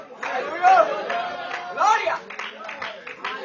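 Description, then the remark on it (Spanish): An audience applauding in a steady, dense wash of clapping, with excited voices and shouts rising over it, sustained throughout at a moderate level. “Si ese aplauso un está bueno”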